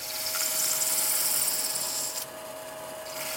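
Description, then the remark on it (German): Steady, dense abrasive hiss of hand-held sandpaper against a spinning brass pocket-compass casing on a lathe, giving it a special sunburst finish, with a constant motor whine underneath; the scraping eases briefly near the end before resuming, no voices. “Dann nimmt er Schleifpapier in die Hand und verpasst dem Gehäuse damit einen ganz besonderen Schliff.”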